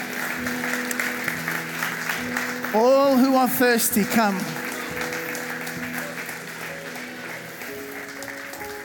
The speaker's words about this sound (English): Come on, church, let's give them a round of applause.